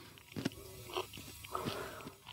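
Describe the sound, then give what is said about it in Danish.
Moist crunching as a piece of salted jellyfish, firmer than expected, is bitten and chewed, with a few sharp crackly bites and squelchy chewing in between, no talking. “Den knaser lidt.”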